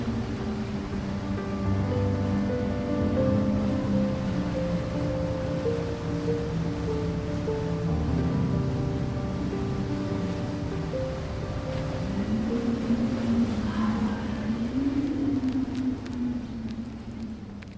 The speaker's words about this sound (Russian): Весь этот гомон охватывает тебя и смешивается с воем ветра.